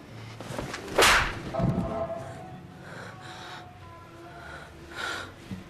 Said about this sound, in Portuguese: Eu esperei tanto por essa bofetada.